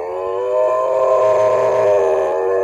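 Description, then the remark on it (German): A dog in a garden howls along to a siren in one long, sustained, wavering note that swells slightly and holds steady for a few seconds, loud with no talking. “Das ja, ist Rocky, weg. wie er singt, wenn eine Sirene läutet.”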